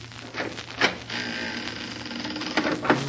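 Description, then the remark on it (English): A cabin door's latch rattles and clicks a few times as someone tries the handle, then the door scrapes open, against a steady mechanical background hum. “Try the door”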